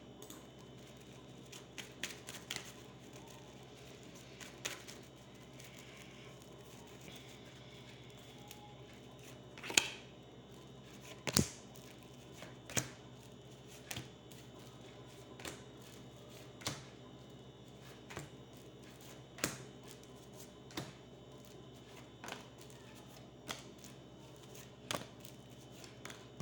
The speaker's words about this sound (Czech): A teď beru karty do ruky a uvidíme, co nám na to ještě řekne Tarot. Tak moment.